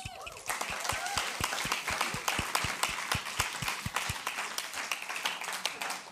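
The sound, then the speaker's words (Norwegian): An audience at Betania applauds a life-group leader, a dense wash of many hands clapping, with some claps falling into a fairly steady rhythm, lasting the whole stretch at an even, moderate loudness. “Gi han en applaus.”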